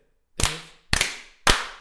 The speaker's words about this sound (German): Ich sollte dreimal klatschen.